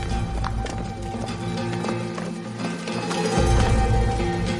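Quick, hurried footsteps of several people, a young woman and her friends, running toward a truck, a rapid patter of steps that grows a little louder toward the end, set against a steady tonal musical background.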